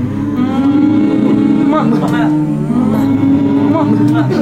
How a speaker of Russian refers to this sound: Здесь мы будем мычать с вами берем за уши себя, тянем за уши вверх немножко и говорим Снимаем «м» с ушей прямо. И звук должен, как будто вы прямо в уши говорите, и это «м» у вас прямо с ушей слезло.